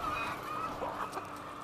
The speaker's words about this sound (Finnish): Tämä kanala on niin sanottu lattiakanala, Eli täältä tulevat munat myydään kaupassa nimikkeellä vapaan kanan muna. Kanat liikkuvat paitsi lattialla, myös hyllykköriveillä, riveillä joiden välissä me kävelemme.